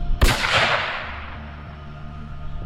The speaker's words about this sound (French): Il lève son fusil automatique et, sans dire un mot, il presse la détente.